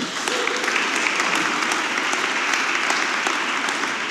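An audience claps steadily for about four seconds, a dense, even wash of many hands at a consistent loud level with no one speaking over it.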